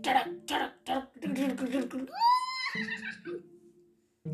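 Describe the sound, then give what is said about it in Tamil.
A single voice imitates urging a horse on, with a quick run of sharp, clipped vocal bursts followed by a long rising-and-falling cry, fairly loud. “அப்படின்னு குதிரையை விரட்டிட்டு போய் அரசன்கிட்ட நடந்தது எல்லாத்தையும் சொல்லிட்டாங்க”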